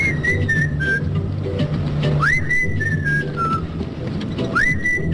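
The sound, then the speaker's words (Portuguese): Tuneful human whistling carries a clear melody in sliding, sustained notes over a steady, rumbling background, with no talking. “isto é um assobio muito afinado e não é fácil assobiar desta maneira.”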